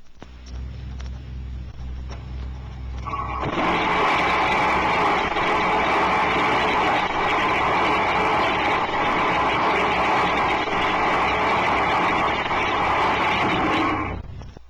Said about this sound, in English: A Model 12T thrust engine will be heard operating on Turbonique's static thrust measuring stand. Its high-velocity exhaust jet discharges directly into the still surrounding air. The thrust engine test follows.